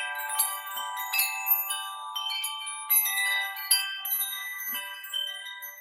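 A wind chime tinkles steadily, its bright, ringing metallic tones overlapping and sustaining, with irregular soft strikes scattered across the whole stretch and no voices.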